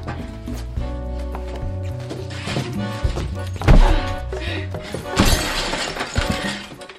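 Loud crashes of breaking glass and smashing furniture burst out twice over steady low music, the second crash followed by a scattered shattering tail, from a film scene where all the furniture and windows in a house are smashed with machine-gun fire. No one speaks.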